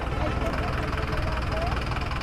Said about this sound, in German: Taxis, Autos, Lkw beladen mit Sofas, Avocados, alten Autoreifen. Der Verkehr hier ruht nie.